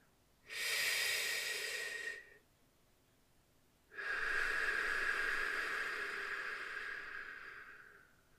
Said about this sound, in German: Erstmal entspannen alle Muskeln lockern und tief in den Bauch atmen.